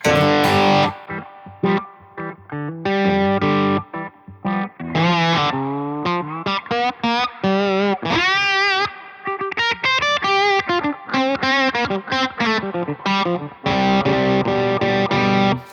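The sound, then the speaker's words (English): A distorted electric guitar plays a busy riff through a preset filter effect from an Eventide H9 pedal, its harmonics wobbling and shifting in tone over steady, loud, sustained notes with no talking. “It's the uh, that filter sound that I used from the Eventide H9.”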